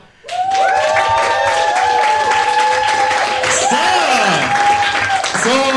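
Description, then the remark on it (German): A live audience at an after-work event in Nuremberg bursts into loud, sustained applause and cheering, with whoops and shouts rising and falling over steady clapping for several seconds. “Afterwork, seid mal laut.”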